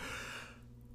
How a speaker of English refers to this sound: Geez, that's already four yawns, and we're like 20 minutes in, not even.